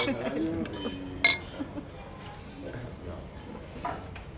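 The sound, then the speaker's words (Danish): Beer glasses clink together once in a bright, ringing toast, while voices murmur and chatter in the background. “… og jeg er lige blevet budt på øl og det hele. Så det er jo bare lækkert.”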